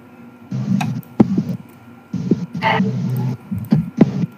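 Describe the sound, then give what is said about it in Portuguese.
Muffled, hollow call audio comes in several bursts with a smeared, echoing quality, punctuated by sharp clicks and low thumps, fairly loud, with short quiet gaps between them. “E aí, tá dando eco de novo?”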